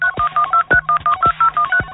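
A rapid run of telephone keypad dialing tones, about ten short beeps in quick succession, each a steady dual-pitched tone, clear with no voices.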